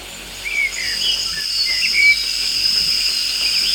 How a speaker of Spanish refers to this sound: Por extraño que parezca en la lluvia, podemos escuchar pajaritos. Bueno, en la vida real no, pero si ustedes quieren combinar lluvia con pajaritos, hay hasta grillos.